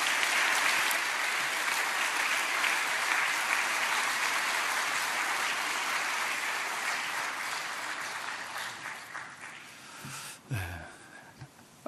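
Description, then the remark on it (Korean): A large church audience claps steadily in a dense, sustained round of applause welcoming a pastor, gradually thinning and fading toward the end with a few scattered claps and a brief voice. “우리 박수로 우리 환영하고 기한 말씀 듣겠습니다.”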